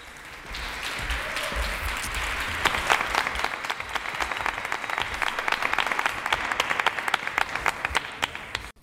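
An audience breaks into steady applause, a dense wash of many hands clapping that swells after a few seconds and stays loud until it cuts off at the end, with no talking over it.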